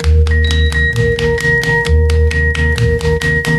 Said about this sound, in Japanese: ここであのもう一曲劇中に流れる曲を聴いてみてほしいです。